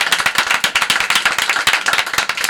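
audience clapping

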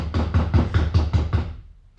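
knocking on a door

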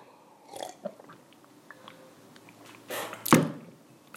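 sipping water

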